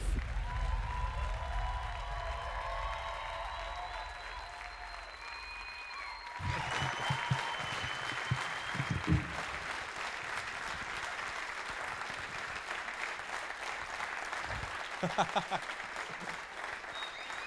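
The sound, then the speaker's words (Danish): A crowd breaks into loud, sustained applause with scattered cheers to welcome Nikolaj Wolf, a dense wash of clapping that swells after a brief stretch of murmuring and continues steadily to the end. “vil gerne begynde at klappe og tage rigtig godt imod Nikolaj Wolf.”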